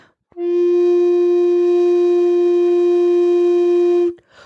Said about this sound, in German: Ich kann das einmal noch auch so einzeln pro, produzieren. Mhm. Wenn ich jetzt einen Ton spiele auf der Altblockflöte jetzt in dem Fall